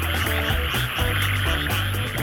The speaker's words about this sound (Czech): tenhle týden trávím spoustu času mezi žábami v Japonsku